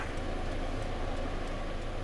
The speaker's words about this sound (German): Die Ampel ist an. Es ist viel Verkehr auf der Straße. Ja. Das ist alle auf Arbeit.